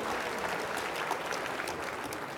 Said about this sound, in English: Okay, big round of applause.